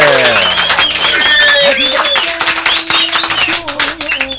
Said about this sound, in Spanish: Denle un aplauso